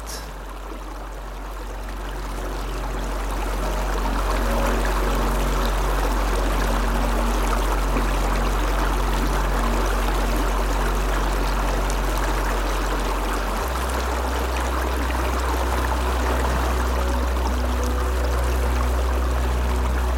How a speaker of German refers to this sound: Gemeinsam komponieren sie eine Symphonie des fließenden Wassers, eine zeitlose Erinnerung an die sich ständig verändernden Rhythmen der Welt.